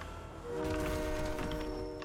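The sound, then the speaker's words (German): A train in a video game rumbles right ahead, a steady mechanical drone with sustained horn-like tones that swell after a brief moment and hold at a fairly loud level, with no talking. “Zug ist direkt hier vorne, ne? Wollen wir drauf?”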